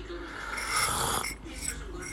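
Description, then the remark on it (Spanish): A noisy, airy slurp as someone sips hot Saimaza coffee made in an Italian moka pot on the stove, a breathy rush that swells and fades over about two seconds with no talking. “pero yo tengo un traguito del café.”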